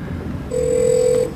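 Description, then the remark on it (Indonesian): A telephone ringing at the start of a recorded 911 emergency call: one steady electronic ring tone lasting less than a second, clear and fairly loud over a low background hum, with no voices. “harus telepon 911 dan ini adalah rekamannya.”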